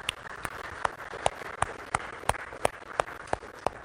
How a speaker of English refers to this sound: Let's give them a round of applause as they come up.